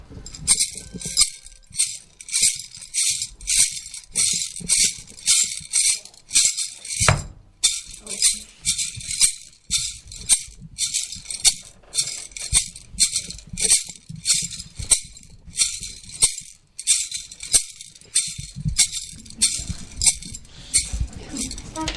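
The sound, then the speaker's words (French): A gamza shaker rattles with seeds clicking inside, played in a steady rhythmic pattern of bright, crisp bursts for about twenty seconds, with no one speaking. “des petits graines, des petits trucs qui cognent dedans et puis tu joues”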